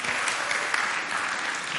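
Audience applause fills the whole stretch, a dense, steady wash of many hands clapping at an even loudness with no voices standing out.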